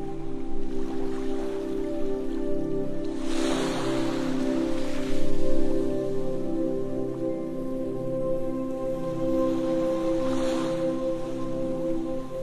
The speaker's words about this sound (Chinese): 现在，如果你有睡意，那么就枕着这个海浪声，轻松的入睡吧。